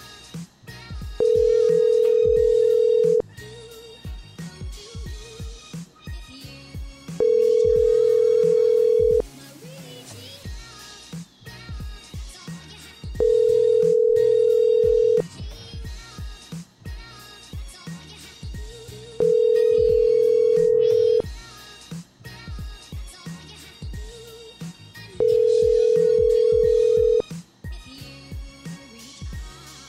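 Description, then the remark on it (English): Five steady ringback tones on an outgoing phone call, each about two seconds long and spaced evenly roughly every six seconds, heard clearly over faint background clatter. “No, I'm going to call you right back, silly.”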